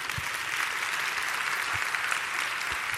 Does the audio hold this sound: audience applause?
yes